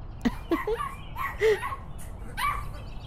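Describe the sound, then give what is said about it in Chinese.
An injured puppy gives a handful of short, high-pitched yips and whiny barks at uneven intervals, fairly soft, over a faint steady background hiss. “啊哦，原来几天前小五发现了一只受伤的小狗，放学后他都偷偷的一个人来这里照顾这只小狗。”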